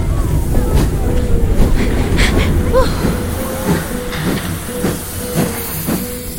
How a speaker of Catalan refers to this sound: Correu, correu, correu, que se'ns escapa el tren!